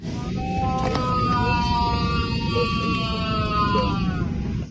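A poisoned man lets out a long, wavering cry of pain lasting several seconds during a flight from Tomsk, partly buried under the steady, loud roar of the airplane cabin.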